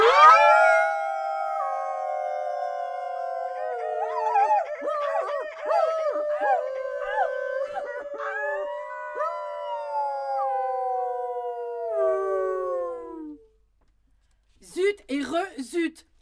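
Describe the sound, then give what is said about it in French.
Several voices howl together like wolves, long drawn-out wavering cries that overlap and slide in pitch for about thirteen seconds, followed by a brief pause and a few short vocal bursts. “Et si nous allions hurler comme des loups sur la montagne de Lure, cela nous ferait un bien fou, j'en suis sûre.”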